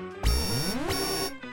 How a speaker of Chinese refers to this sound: 那一个浮在空中的鸡蛋交替着发出了金色和红色的光芒，缓缓地降了下来，还伴随着啊像电视里面的机器人一样的警报声。